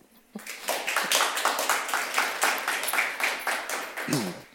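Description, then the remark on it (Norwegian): Sustained audience applause at a literary event introducing an author talk, a dense crackle of many hands clapping at steady loudness for several seconds, starting abruptly and tapering slightly at the end as a voice briefly begins. “Eh, gi din gode god applaus.”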